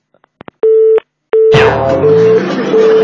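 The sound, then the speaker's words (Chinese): A few soft clicks as the person called hangs up on a call from the show 海洋现场秀, then a phone busy tone: steady, mid-pitched beeps repeating in an even rhythm. A wash of music swells in partway through and the beeps continue beneath it. “呃，既然亮出底牌了，陈胜斌还挂我的电话，那也没办法了。”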